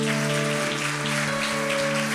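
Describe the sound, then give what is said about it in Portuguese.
An audience applauds God steadily, a dense, crackling wash of many hands clapping at once, over a sustained low keyboard chord holding underneath. “Vamos aplaudir o nosso Deus, vamos.”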